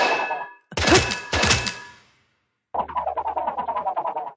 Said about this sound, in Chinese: 那妖怪被惊醒，啊，把俺家的门都砸坏了。